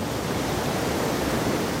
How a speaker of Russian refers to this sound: Ты слышишь, воды стонут. Он смутил глубины, затоны.